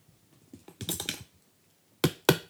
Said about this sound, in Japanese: ね、このペンであのテーブルを叩く、ね、この落語みたいな感じでいいですね。